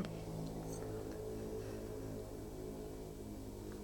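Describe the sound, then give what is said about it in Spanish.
A motorcycle engine drones outside with a steady, buzzing low rumble that holds for a few seconds as it passes. No one speaks. “Ah, eso fue una moto.”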